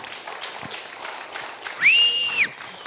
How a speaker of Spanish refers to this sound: Eso sí merece un aplauso grande.